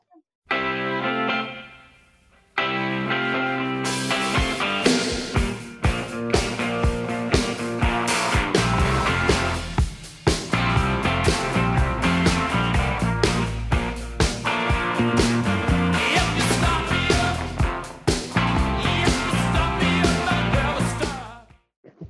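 A rock song plays loud, opening with a short, quieter intro before a brief pause and then the full band crashing in with steady, driving drums that continue to the end.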